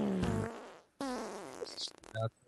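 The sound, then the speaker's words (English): A voice makes a few loud, buzzing fart noises in quick succession, with wavering pitch and short pauses between them. “Fart, fart, fart, fart.”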